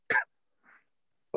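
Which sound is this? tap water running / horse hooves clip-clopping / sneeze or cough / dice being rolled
sneeze or cough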